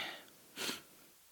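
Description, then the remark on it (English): A soft, airy breath trails off, then a fuller, louder breath rushes through after a short pause, slightly wheezy, with no talking; a person deliberately practicing breathing in and out. “Just practice breathing.”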